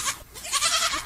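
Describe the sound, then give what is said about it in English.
A goat bleats in a wavering, nasal cry that rises and falls across about a second, loud, with no talking over it. “I can hear my goat in the back.”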